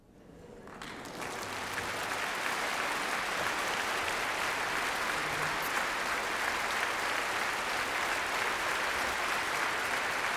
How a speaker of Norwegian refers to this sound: Takk, takk. Takk. Hyggelig. Hyggelig. La det klappe ferdig. Ja, men må, De slutter aldri hvis ikke vi stopper det, vet du.